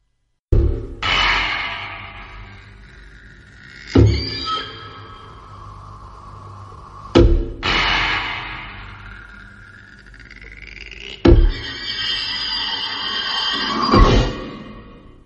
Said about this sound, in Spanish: La serie se llama Ultra Q, es una serie de 1966. Y bueno, escuchamos una breve intro que son unos poquitos segundos que después la vamos a ir escuchando esta misma, estos mismos pocos segundos en las distintas series que irán saliendo.